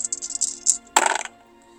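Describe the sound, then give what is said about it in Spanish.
Three dice, one proficiency die and two success dice, clatter in a tabletop game roll for a scanning check: a quick run of small hard clicks as they rattle, then a louder burst of tumbling on a hard surface before settling into quiet. No voices. “O sea que tiro un dado de proeza y dos dados de éxito.”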